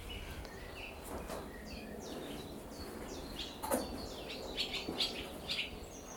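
Barn swallows flying back and forth twitter in a busy, continuous stream of quick high chirps and warbles, some sharper than others, over a steady outdoor background hum.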